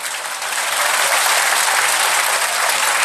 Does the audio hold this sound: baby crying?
no